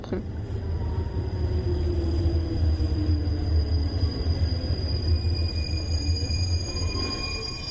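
A Paris RER commuter train rolls steadily along, its deep continuous rumble filling the foreground, with faint high electric whines humming above and no break in the noise throughout.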